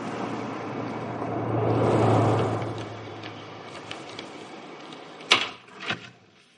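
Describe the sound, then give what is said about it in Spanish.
A few faint taps on a door, then two louder thumps and clatter as it seems to open, opened by an elderly woman to people delivering a package, over steady background noise with a low rumble like a passing vehicle early on. “Después cambian la dirección del paquete y llaman a otra puerta. Abre una anciana.”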